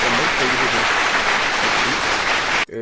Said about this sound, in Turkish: E, buradan her aç başlayan kişilere bir alkış gönderelim Ee, bir alkış gönderelim.